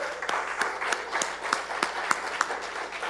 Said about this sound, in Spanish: Porque Él nos quiere, Él nos ama. Puede darle un aplauso al Espíritu Santo.